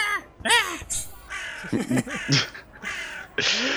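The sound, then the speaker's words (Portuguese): A person imitates a crow to shoo one away, letting out a quick run of harsh, raspy caws. The calls are fairly loud, each short and strained, one after another with barely a pause. “Eu fico afastando ele imitando o corvo assim.”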